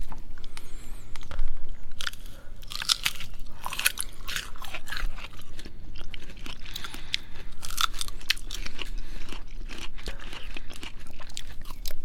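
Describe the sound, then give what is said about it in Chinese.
Crisp, crunchy chewing of guava, with repeated bites and mashing in an irregular rhythm, bright crackly bursts standing out clearly with no talking. “芭乐应该比较 有存在感。”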